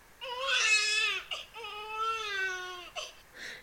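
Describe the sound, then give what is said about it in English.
A baby cries in two long, wailing bursts with a sharp breath between them, then catches its breath again. Fairly loud, and no one speaks. “No need to cry, my friends.”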